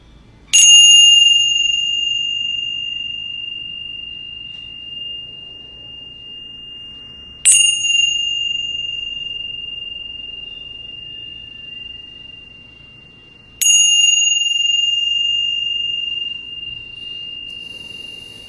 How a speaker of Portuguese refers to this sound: eu vou convidar o sino a soar três vezes para a gente começar essa, esse período de prática e depois uma vez para a gente terminar.